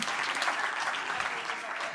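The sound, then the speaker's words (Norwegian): An audience claps steadily for the full two seconds, a dense, even wash of many hands with no pauses and no voices standing out, applauding a slide of a Salt Nordland church service. “Kan godt gi applaus for det her, altså.”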